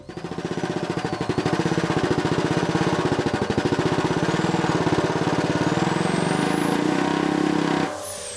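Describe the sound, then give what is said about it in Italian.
A power drill whirs steadily while a drumstick attached to it batters a drum in a rapid, machine-gun roll, loud, for about eight seconds before cutting off abruptly. “Provo a collegare una bacchetta al trapano e la faccio suonare su un tamburo, vediamo che rullo esce fuori.”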